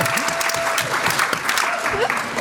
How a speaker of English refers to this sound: Okay, thank you all so very much for coming out tonight for an 8 o'clock panel on Thursday. Yeah! yourselves a round of applause.